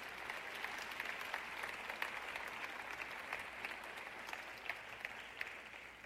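An audience applauds steadily for several seconds to thank a man after a prayer, a dense wash of many hands clapping with scattered sharper claps standing out, fairly even in loudness throughout with no talking.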